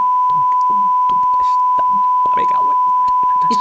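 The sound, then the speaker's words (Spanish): A steady, loud censorship bleep holds one unbroken tone for the whole stretch, laid over a person talking whose muffled speech bursts show through underneath. “Pongo uno largo, que le voy a poner el fino.”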